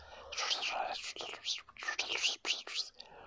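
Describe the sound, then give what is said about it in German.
A woman whispers into someone's ear in a soft, breathy rush of unvoiced syllables, several short bursts strung together over about three seconds with no audible voiced speech. “Ah, und dann flüsterte sie Balla Balla was ins Ohr, was Herr Dumdum nicht hören konnte.”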